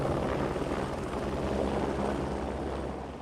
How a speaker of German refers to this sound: weil der Hubschrauber mit einer Kufe auf so einem kleinen Felsplateau, das ist so ein Küchentisch groß am Ende, eine Kufe draufsetzt. Dann heißt es, alle schnell raus aus dem Heli, der fliegt wieder weg